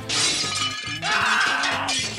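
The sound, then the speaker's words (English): Mirror glass shatters in two bright, crashing bursts, the second following after a brief gap, with sharp high-pitched tinkling and crackling shards throughout, loud and without any voices. “Breaking a mirror, 21% think it's unlucky.”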